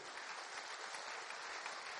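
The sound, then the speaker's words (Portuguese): A crowd applauding steadily, a dense, even wash of many hands clapping that holds without pause for about two seconds, with no voices over it. “Você pode aplaudir e exaltá-lo.”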